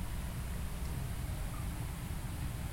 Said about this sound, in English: That sound is our misters kicking on, so those are on a timer and we're uh, just trying to keep it at 90% humidity, which keeps these guys happy.